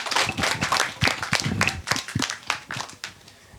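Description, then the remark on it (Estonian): A crowd applauds steadily as a presenting team is sent back to their places, many hands clapping together in a dense, continuous patter with a few sharper individual claps standing out, moderately loud. “seega saadame siis aplausiga kohale tagasi, aitäh teile.”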